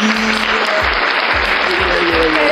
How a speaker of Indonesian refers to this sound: keren tepuk tangan dulu